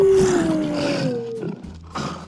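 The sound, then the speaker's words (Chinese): A voice imitates a big dinosaur roar, "hu": one loud, drawn-out growl that slides downward in pitch for over a second, followed by a couple of shorter, quieter rumbles. “恐龙会，它低跺脚，喊着“再念一本，我还要”，还是来一个恐龙大吼“呼”？”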